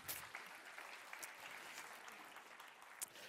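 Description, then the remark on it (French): A crowd applauds the Lord after a sermon, clapping steadily in a dense wash of hands with a few sharper claps standing out, sustained at an even level for a few seconds. “On peut l'applaudir.”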